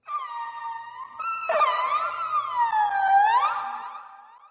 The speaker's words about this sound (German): Das Wale singen ist ja nichts Neues, denkt ihr vielleicht. Aber wusstet ihr, dass Buckelwale mehr als 600 verschiedene Laute in ihren Gesang einbauen? Sie quietschen, gurren, pfeifen und brummen und aus den Lauten machen sie Lieder mit Strophen,